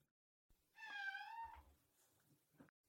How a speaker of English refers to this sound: My cat is in the background. I've got to go let her out and then I'm going to continue recording.